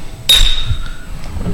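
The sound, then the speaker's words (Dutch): Beer glasses clink together once in a toast, a sharp bright strike followed by a thin high ring that fades within about half a second over a low background murmur. “Proost. Proost. Proost.”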